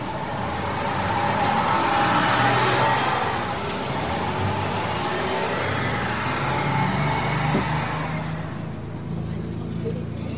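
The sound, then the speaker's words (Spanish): A steady bus engine hums and rumbles throughout, revving slightly as it pulls away, with muffled background voices faintly underneath; the bus is heading through the outskirts of Osaka, Japan, to the airport at Itán. “Subo el autobús y pa'lante.”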